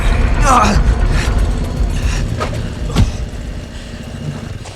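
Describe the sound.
A motorcycle engine idles with a steady, low, throbbing rumble that runs through the whole stretch, while a brief voice cuts in near the start and faint clicks surface over the drone.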